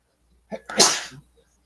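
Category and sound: human body sound, a sneeze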